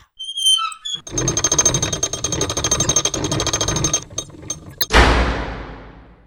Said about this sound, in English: A secret door.